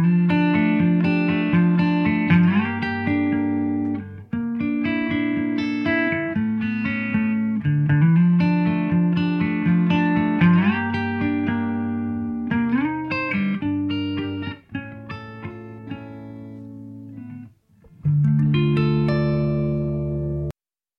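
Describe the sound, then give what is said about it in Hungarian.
A sad song with male vocals over full, steady accompaniment plays loudly and continuously, with sustained melodic lines and a brief drop near the end before the music swells back in. “énekelte jobb szín felütésű, de annál őszintébb és tragikusabb hangvételű dalt.”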